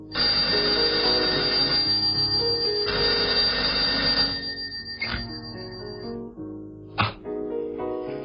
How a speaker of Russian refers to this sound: На седьмой день, вернее, на седьмую ночь, когда он крепко спал, в комнате раздался телефонный звонок.